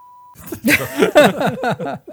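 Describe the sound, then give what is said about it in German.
A short, steady censor beep tone plays at the start over a phone number, cutting off abruptly before louder voices break in with laughter and talk for the rest of the moment. “Sehr gut, der Pieper. Endlich war im Einsatz.”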